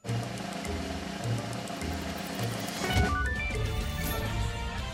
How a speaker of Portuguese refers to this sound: Isso mesmo, alguém a arrastar uma cadeira. Incrível, não é?